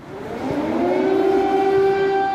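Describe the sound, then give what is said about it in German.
A civil defense air raid siren wails in Kyiv, its tone rising smoothly then holding a steady, loud drone with harmonics, heard alone without any voices. “Stunden zuvor hatten in Kiew die Sirenen geheult, mal wieder.”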